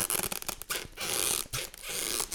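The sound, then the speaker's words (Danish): Loud crinkling and tearing of paper as a large but light Christmas present, wrapped in paper with a bow, is unwrapped: a continuous rustle with brief pauses and sharper rips over a couple of seconds, no voices. “vi pakker lige gaverne op”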